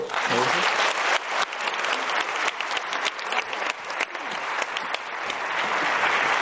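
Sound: audience applause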